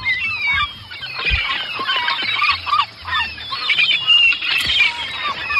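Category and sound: bird, seagulls calling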